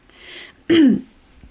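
A single short, forceful throat clearing close to the mic, preceded by a faint breathy rasp, then quiet.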